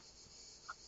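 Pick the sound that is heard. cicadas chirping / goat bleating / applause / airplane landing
cicadas chirping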